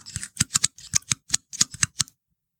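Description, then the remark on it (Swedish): A pine cone being taken out and handled in a studio, giving a quick series of dry, crisp crackles and scratchy clicks in an uneven rhythm for about two seconds, then silence. No talking. “Eh, det är de små, små ljuden om jag skulle till exempel ta fram den här kotten i en grupp med 15 spädbarn och vuxna”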